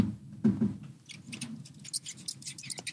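A rat squeaking and scurrying: short high-pitched squeaks repeat irregularly over a low, steady scratching and rustling, fairly quiet, with no voices.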